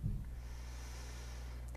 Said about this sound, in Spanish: si en algún momento vuelve a atravesarse la angustia, solo voy a conectarla a través de esta respiración